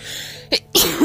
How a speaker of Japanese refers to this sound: マジかい。もうごめんね。びっくりさせちゃったしたとか、ブレスミーです。はい。くしゃみ出ちゃった。